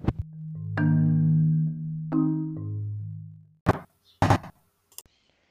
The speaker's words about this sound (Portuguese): Michael escuta umas batidas em sua porta e pergunta